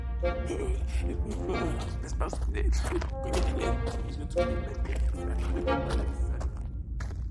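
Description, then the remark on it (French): A voice mutters incomprehensible words indistinctly and continuously while soft, irregular footsteps pace around in circles underneath, over a low steady rumble. “Rodolphe se mit alors à tourner en rond comme un lion en cage tout en marmonnant des mots incompréhensibles”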